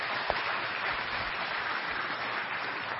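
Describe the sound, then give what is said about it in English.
An audience breaks into steady, dense applause for two welcomed guests, a continuous wash of many hands clapping at an even loudness for the full few seconds, with no voices heard. “Yeah, go and give them a round of applause.”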